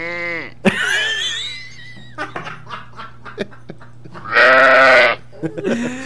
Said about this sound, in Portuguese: Não, tem ovelha, solta a ovelha aí.